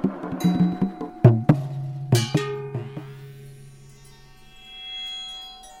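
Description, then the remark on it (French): A bomba hand drum, held between the player's legs, struck repeatedly with deep, metallic-sounding hits in an uneven rhythm, each blow ringing briefly before the tones fade into near silence. Fairly loud, with no voices. “Des sons métalliques et profonds en jaillissent.”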